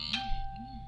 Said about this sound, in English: oh, that's my phone ringing, but who cares?